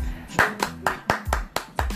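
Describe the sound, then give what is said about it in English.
Seven sharp hand claps land in a steady, brisk rhythm, roughly four per second, over a low, sustained hum in the background. “I got the clap.”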